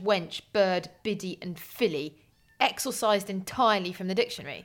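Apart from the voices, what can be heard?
cat meowing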